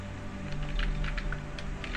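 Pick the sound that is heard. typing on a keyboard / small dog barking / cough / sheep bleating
typing on a keyboard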